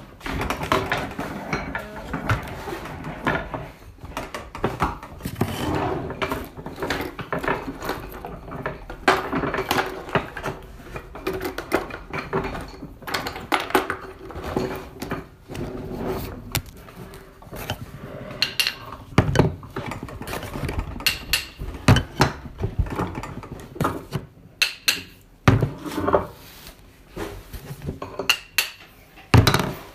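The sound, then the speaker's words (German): A metal lantern being handled, with repeated irregular clinks, clatters and scrapes running continuously throughout, moderately loud with no voices. “Die Lantern hier”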